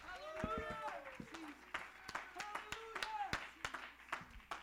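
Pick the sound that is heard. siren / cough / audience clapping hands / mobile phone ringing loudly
audience clapping hands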